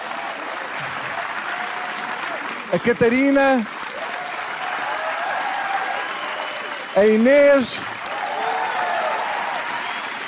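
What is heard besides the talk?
audience applause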